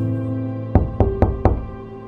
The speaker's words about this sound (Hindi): assignment बस शुरू ही किया था कि अचानक से मेरे दरवाजे पे दस्तक हुई